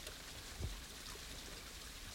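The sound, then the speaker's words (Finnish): Water sloshes and swirls steadily in a gold pan moved in calm circular motions at the water's edge, washing gravel away layer by layer with a soft gritty wash, and one low bump partway through, with no voices. “Rauhallisin, pyörivin liikkein, veden rajassa. Sorakerros kerrallaan pois, vaalea hiekka tummuu.”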